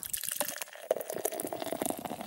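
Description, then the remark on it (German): A Bitburger Pils being poured into a glass, a steady gurgling splash with fizzy bubbling and a few brighter glugs, lasting about two seconds with no voices. “Und jetzt zum Bier der Woche.”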